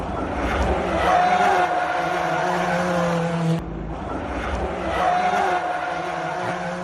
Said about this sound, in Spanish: así se acaba un tramo, derrapando y al borde del accidente. ¡Qué barbaridad!